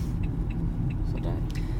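Steady low-frequency rumble of a car interior on the move, droning evenly without a break, with faint voices murmuring beneath the road noise.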